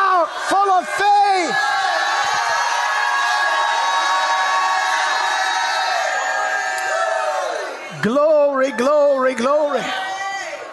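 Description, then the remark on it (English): A large crowd erupts in loud, sustained shouting and cheering, giving a shout to the Lord, a dense roar of many voices lasting several seconds, with individual whoops and yells rising above it at the start and end. “Go ahead and shout like you never shouted in your life.”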